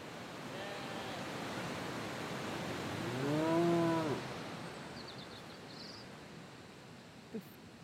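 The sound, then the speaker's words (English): A Welsh Black cow in a field with sheep gives one long, low moo lasting about a second, over a steady rush of wind or outdoor background noise. “just walked through a field full of sheep and uh, Welsh black cattle”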